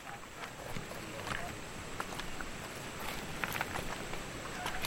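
People wade chest-deep through a river past a rock wall on the way back, water sloshing and splashing continuously, with irregular surges of movement against a steady wash of flowing water.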